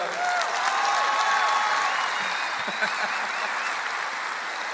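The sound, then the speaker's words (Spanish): A crowd applauds the speaker's wife and children, a sustained, dense applause, steady and loud for several seconds, with scattered cheers and a few high whistles rising above the clapping. “Fuerte el paso para ellos.”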